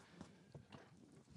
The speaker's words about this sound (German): oh, ich hoffe, ihr hört den Stuhl nicht die ganze Zeit im Hintergrund. Das ist ja schlimm, Alter, wie der knarzt. Ich glaube, ich brauche mal einen neuen Bürostuhl.